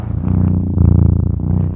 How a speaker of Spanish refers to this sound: A ver, que se escuche tu ronroneo.